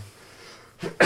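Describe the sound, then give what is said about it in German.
A single sneeze erupts near the end, a short sharp intake followed by a loud, breathy burst, with nothing but quiet background before it. “Gesundheit”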